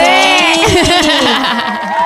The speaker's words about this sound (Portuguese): Uhul, coloca umas palmas.